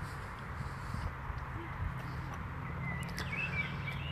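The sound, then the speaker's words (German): Birdsong in an outdoor garden, with a few thin chirps toward the end over a steady low background rumble. No one speaks. “Ich sitze hier also in diesem Geschenk von Gott und lausche den Vögeln, rieche die Blumen, den Lavendel, die Rosen.”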